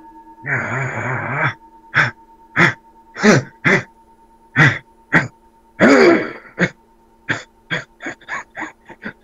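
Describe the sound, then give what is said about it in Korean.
A long, rasping throat-clearing opens into a string of sharp, painful-sounding throat coughs, around a dozen bursts with a second gravelly hack midway, growing quicker and choppier toward the end. No speech. “얼마나 고통스러우실까 이 목 후두 후두 목목 기침 기침도”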